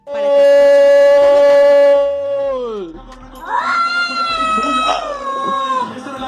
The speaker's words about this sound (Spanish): No, eso le están pellizcando, eh, están pellizcando al gato.